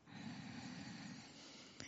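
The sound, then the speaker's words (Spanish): A long, deep breath drawn in, a steady airy rush lasting nearly two seconds before a brief click at the end. No talking. “Así que tomen una profunda respiración, porque yo hasta yo necesito aquietarme, ¿no?”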